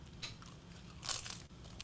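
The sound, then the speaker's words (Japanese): Crisp crunching bites into dry nori seaweed, a few brittle crackling bursts with one louder snap near the middle, over a low steady background and no talking. “あまた海苔がですねあパリパリですねこのサイズのお海苔が入ってますこれちょっとお行儀悪いですけどいただいていいですか はいいただきます”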